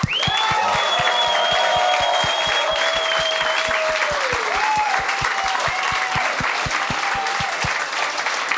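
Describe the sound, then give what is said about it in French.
A crowd claps loudly and steadily for a host's guests, dense applause with a few whoops and cheers rising through it, sustained for several seconds with no one talking. “On va donner une bonne main d'applaudissement à mes invités.”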